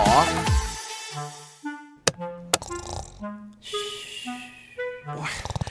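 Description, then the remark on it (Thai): Loud, exaggerated snoring from a man sleeping, keeping another person awake: a string of drawn-out, tonal snorts rising and falling in pitch, broken by a couple of sharp clicks, with no talking. “ตื่นเดี๋ยวนี้ก้นดังยังกับบูดรถไฟ ผมนอนไม่ได้เลย”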